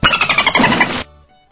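A loud dolphin squeal, a rapid burst of high, chattering squeaks lasting about a second before cutting off abruptly into a faint fading tail.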